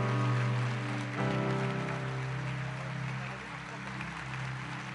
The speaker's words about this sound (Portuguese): Você pode colocar de pé um minutinho e aplaudir o Senhor por alguns segundos. Você pode aplaudir mais forte o Senhor aí?